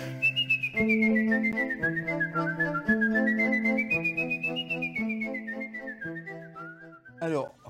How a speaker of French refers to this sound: En ce qui concerne le sifflet ce soir, je fais le job.